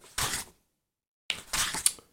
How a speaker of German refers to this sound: Okay, ich blätter einmal schnell und laut.